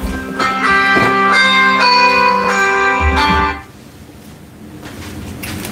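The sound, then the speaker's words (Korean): A loud, melodic phone ringtone chimes during a broadcast for about three and a half seconds, then cuts off abruptly as the call is hung up, leaving only a low background hiss. “방금 전화 가 와서 방송에 방해를 받았기 때문에 끊었습니다.”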